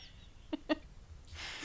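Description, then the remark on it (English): Two short, sharp seagull squawks in quick succession, loud, followed by a rush of breathy, hissing noise. “Clearly, this seagull it. Uh, agrees with you and joined wanted to join in his opinion.”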